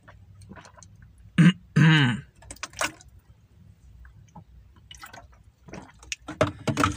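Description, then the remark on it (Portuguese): Water is poured into a glass with a gurgling rise in pitch, followed by sips and swallows, the small clinks and drips of drinking. “Deixa eu tomar água aqui que a minha voz já tá indo pro saco.”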